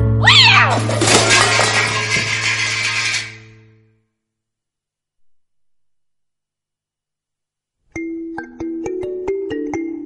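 A cat lets out a loud, drawn-out, wavering meow for about three seconds. A long silence follows, then a series of short chiming musical notes plays.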